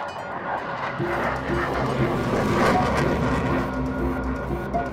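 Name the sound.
fighter jet flying overhead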